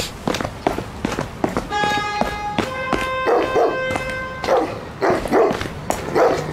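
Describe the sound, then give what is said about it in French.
A dog barks several times in short, uneven bursts, over a busy background with a sustained tonal hum and steady rhythmic clicks. “Ouais, ouais, le chien, t'as raison, t'as la belle vie, toi, t'es jamais en retard, hein.”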